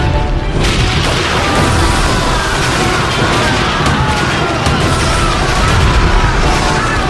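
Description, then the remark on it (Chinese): Loud, dense naval battle din as Japanese warships fire their big cannons; booming cannon fire with heavy low rumbling and repeated blasts blending into a continuous roar for several seconds, no speech heard. “炮声隆隆，天崩地裂，日本舰船开出心腹大炮。”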